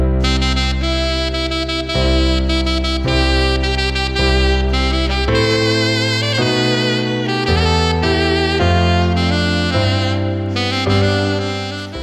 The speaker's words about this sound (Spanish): linda con esta, con esta música sensual.